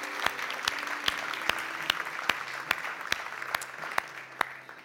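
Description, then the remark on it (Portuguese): A church audience applauds the Lord in a dense, steady wash of clapping, with sharp, evenly spaced claps standing out about twice per second, for around five seconds with no talking. “aplauda ao Senhor que ele merece, ele é bom, ele é fiel.”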